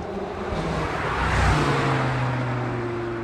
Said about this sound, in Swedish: På parkeringen på Strandvägskajen rullar … in med sin motorstarka lyxbil. Jag har M4 Competition BMW. BMW. BMW M4 Competition heter den. Det är en jättesvårt bil. Det är 450 hästkrafter.